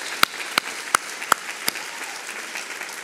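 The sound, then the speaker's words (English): Audience applause for panelists thins to a few sharp, evenly spaced hand claps, five in quick succession and the last one softer, then quiet hiss with no talking. “Let's hear it for them one more time.”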